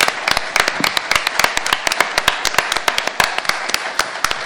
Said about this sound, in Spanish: que le le podemos dar un gran aplauso, por favor,